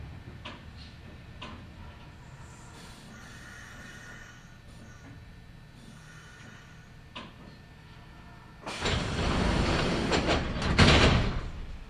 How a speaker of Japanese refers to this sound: This is Kitakusa. Station number E25. The doors on the left side will open. Please be careful.